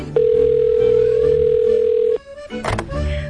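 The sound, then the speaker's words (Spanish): A steady electronic phone ringback tone while calling the practice of Ángel Luque holds one pitch for about two seconds, then cuts off as the line picks up, followed by a brief click and rustle. “Madre mía, voy a ver si me lo cogen en la consulta de Luque, que llevo unos días de pena con este tiempo, a ver si están.”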